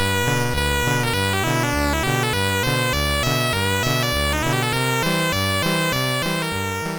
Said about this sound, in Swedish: fanns bland annat den här lilla melodisnutten.